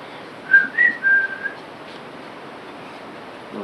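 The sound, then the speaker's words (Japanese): A person whistles a short improvised phrase of three or four close, clear notes at night, lasting about a second, then stops, leaving only a steady low hiss in the background. “蛇蛇が来るか、お化けが来るか人によって違うんだけどさ、ね、口笛ね”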